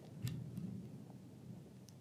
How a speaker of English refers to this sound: Did you hear that, guys? That was thunder. That sounded like a building just got torn down.